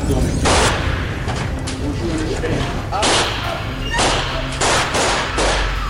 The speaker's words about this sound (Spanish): entonces cuando el guardia de seguridad mata al agresor con varios tiros en el pecho. Ninguno de los miembros del consejo escolar sufrió heridas graves, porque los disparos del agresor fueron fallidos.